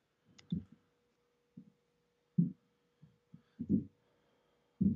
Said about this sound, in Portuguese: Que barulho é esse aí? É o pessoal treinando? É, o Muay Thai aqui do lado. Caraca, os caras tão bravos, hein?